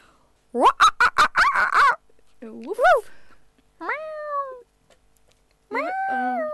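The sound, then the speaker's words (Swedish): A person on Studentradion 98,9 imitates animal sounds: a quick burst of choppy clucking noises, then a swooping cry and two drawn-out, falling meow-like calls separated by short pauses. “försökte låta som djur precis”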